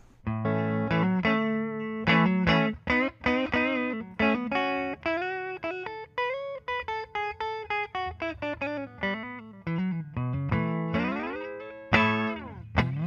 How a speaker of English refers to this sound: Uh, here, well, I'll, I'll show you guys my clean signal and then we'll get into it. So this is my strat on the neck position into the Princeton Reverb. Uh, and we've got these fancy pickups in here still.